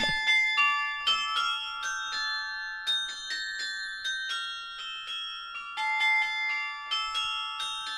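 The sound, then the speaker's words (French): Carillon bells ring out a melody, a steady sequence of bright, resonant strikes whose tones overlap and hang in the air, moderately loud with no voices. “Le carillon se fait entendre généralement entre la période de Pâques et celle de Noël.”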